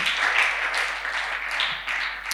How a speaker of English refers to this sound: Can you clap your hands for this woman?